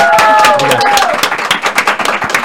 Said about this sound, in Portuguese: Ah, é, Uma salva de palmas!